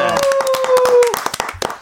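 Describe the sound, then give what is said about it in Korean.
A short round of applause from a few people welcoming the director and an actor of the crime action film Special Delivery (특송) as guests at a 2022 new year segment: quick, irregular hand claps, fairly loud, with a steady musical tone sustained underneath for the first half before fading out. “네, 박수 어서 오세요.”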